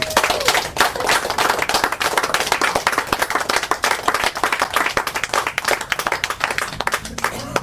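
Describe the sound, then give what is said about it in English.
An audience applauds steadily after a reading, many hands clapping in a dense, continuous patter that stays loud throughout, with a faint voice or cheer briefly rising under the clapping. “Let's give her another Woo! hand.”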